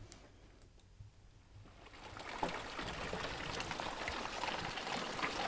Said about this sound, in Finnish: touko-kesäkuussa, niin mä oon äänettänyt sen ensimmäisen sateen yllättäen. Se, tuli. se oli ensimmäinen sade, mikä tuli